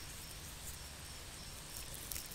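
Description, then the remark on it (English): Dry flower petals crinkle softly, a steady faint rustling texture with a few slightly sharper crackles toward the end, and no voices. “Yes, as you can hear, they are nice and dry.”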